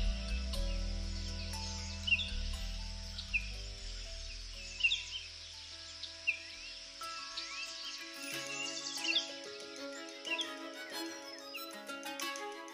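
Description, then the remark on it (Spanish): Several birds sing and chirp over a steady insect-like hiss, with short bright calls popping up throughout against a dense, humid background of ambient wildlife in a jungle in the morning. “Después de caminar por un largo rato, quiso descansar bajo la sombra de un árbol y se entretuvo varias horas escuchando el canto de los pájaros.”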